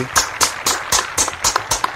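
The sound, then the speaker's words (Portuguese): Steady hand clapping, a round of applause for four semifinalists, about eight sharp claps in two seconds at an even, quick rhythm, moderately loud with no voices over it. “Dá uma é... salva, salva de palmas aí, velho. Salva de palmas, salva de palmas aí.”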